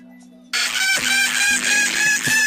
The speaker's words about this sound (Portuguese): Uma galinha